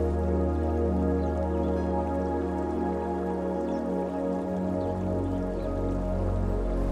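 Gentle river water trickles and laps continuously at a steady, moderate level at the bank of a river, with soft dripping textures and a sustained low tonal hum beneath it and no voices.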